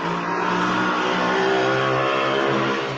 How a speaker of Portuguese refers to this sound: Só esperando passar o carro, gente.